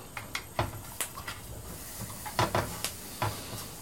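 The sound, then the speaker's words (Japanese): A portable gas stove burner hisses steadily and softly, its even rushing noise broken by scattered faint ticks and crackles. No one speaks. “で、どっちか片方から今のこのガスコンロの音う完全に片側に寄せているので、もうちょっとうまい配置ができれば、本当はいいんだけど”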